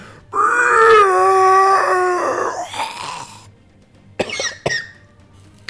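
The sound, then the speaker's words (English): A person loudly imitates a deafening monster scream: a long, strained, screeching wail of about three seconds, followed after a short pause by two sharp coughs. “And as the two beside you, Corick, like raise up their claws to attack, you hear this deafening scream.”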